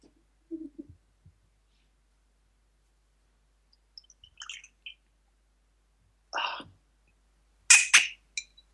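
A cork squeaks as it's worked out of a whisky bottle: a few soft low rubs, then a string of short, shrill squeals growing louder toward the end, with no talking.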